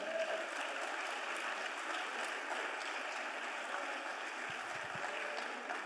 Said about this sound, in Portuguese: Você pode aplaudir o Senhor pela sua palavra?